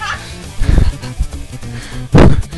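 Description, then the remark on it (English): A child's voice shouts loudly in two sharp outbursts, separated by a quieter stretch of murmured sound, as the child comes running into a study. “scaring the living daylights out of me, coming running into the into the into the study”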